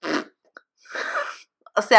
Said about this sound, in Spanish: le dio estornudo y está sufriendo para no estornudar. estornuda, mi reina, estornuda.